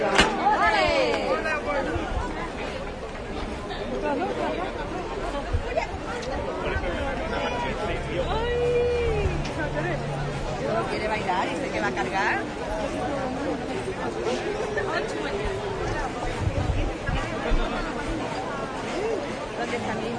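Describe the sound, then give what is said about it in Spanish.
A dense, growing crowd of gathered spectators murmurs and chatters steadily throughout, overlapping voices forming a continuous hubbub with occasional louder calls and clatter rising above the babble. “Cada vez más público congregado.”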